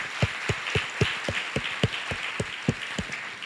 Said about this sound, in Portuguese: Vamos dar uma salva de palmas para o Senhor, porque Ele diz isso para nós.